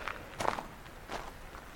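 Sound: footsteps walking outdoors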